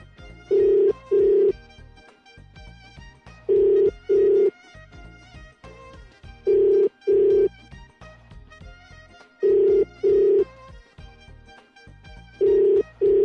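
A telephone ringback tone on an outgoing call: paired electronic rings repeat about every three seconds, five cycles in all, steady and fairly loud over faint background music.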